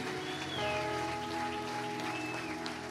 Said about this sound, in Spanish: ¿Qué tal si le sigues aplaudiendo mucho, mucho, mucho?